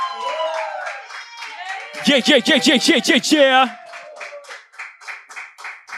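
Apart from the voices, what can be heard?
audience applause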